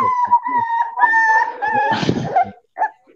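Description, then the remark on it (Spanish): A dog whimpers and whines for attention in high, drawn-out tones, several whines running together, with a short burst of noisy movement near the end and a brief final whimper. “¡Puto perro! Pues quiere atención y estoy grabando.”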